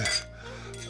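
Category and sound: household object, wine glasses clinking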